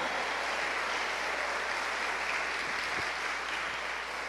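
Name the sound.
audience applauding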